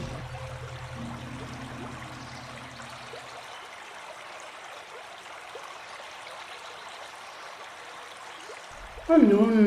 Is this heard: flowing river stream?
yes